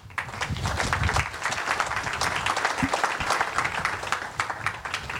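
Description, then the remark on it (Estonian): An audience breaks into steady applause thanking a presenter, many hands clapping in a dense, even patter that holds at a fairly loud level for the full five seconds, with no one talking over it. “aga aitäh Madisele, teeme suure aplausi.”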